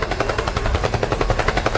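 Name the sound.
helicopter sound effect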